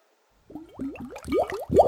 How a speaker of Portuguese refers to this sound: Com isso, vou beber mais um golinho d'água.